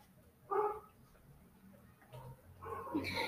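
A dog barks twice, a short sharp bark followed after a pause by a longer, louder burst of barking, with a faint background hum.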